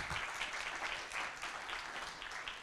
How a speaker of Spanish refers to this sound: Vamos a dar un aplauso. Bienvenido una vez más.